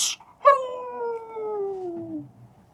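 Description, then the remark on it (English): A voice imitates a dog, letting out one long, clear howl that slides steadily downward in pitch after a short noisy burst, fairly loud, with no other talking. “Woof woof woof woof woof woof woof woof.”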